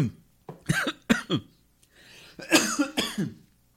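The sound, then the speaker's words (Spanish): A fit of harsh, wet coughing from someone choking on water mid-sermon: several sharp bursts in quick succession, a brief pause with strained breathing, then a louder, raspier round of coughs. “Ay, que se me fue la agua para otro lado.”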